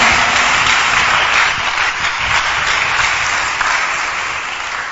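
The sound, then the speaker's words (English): An audience claps together in a dense, continuous wash of applause that holds steady for about five seconds, easing off slightly toward the end, with no voices standing out. “Father, may those who are clapping, may angels also clap for them.”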